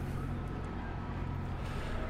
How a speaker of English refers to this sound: Here at the railway station, there are eight coaches already bringing people to this train.